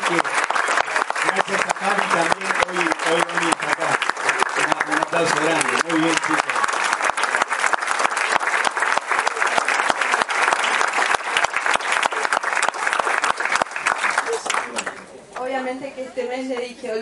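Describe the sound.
A crowd breaks into loud, sustained applause, dense clapping that stays steady for about fifteen seconds before fading, with a voice speaking as it tapers off.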